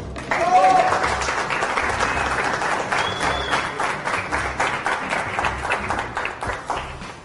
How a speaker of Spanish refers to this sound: Un aplauso para esa.